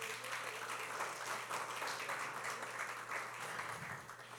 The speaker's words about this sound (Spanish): Un fuerte aplauso a las mamás.